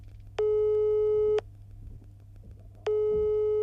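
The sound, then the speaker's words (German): A telephone busy signal on the vaccination appointment hotline in Hessen, Germany: two steady, loud electronic beeps about a second long, separated by a longer gap, over a low background hum with no voices. “Nur wer Glück hatte, bei dem wurde der Hörer auch abgenommen.”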